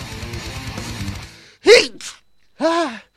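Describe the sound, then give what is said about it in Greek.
A loud sneeze bursts out after a quiet pause, a short breathy puff follows, then a second voiced, sneeze-like exhale. Faint background noise fades out beforehand. “Φτερνίστηκα εσένα που ακούς.”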